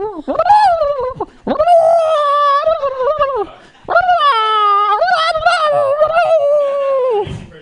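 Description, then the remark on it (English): A person howls like a wolf as an animal impression, voicing three long, wavering calls in a row, loud, with brief breaths between them. “It's a wolf.”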